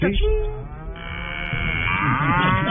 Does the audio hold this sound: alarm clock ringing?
no